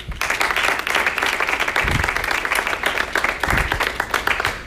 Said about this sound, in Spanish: Gloria. Un aplauso a Jesús.